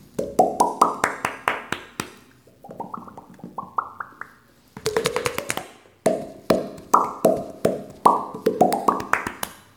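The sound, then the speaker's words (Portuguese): Hollow popping sounds made by slapping a hand over the mouth, fired in quick runs whose pitch climbs step by step, in several melodic phrases with brief pauses between, and no talking. “E tem um monte de sons com a boca também que a gente pode fazer. A mão na boca, por exemplo.”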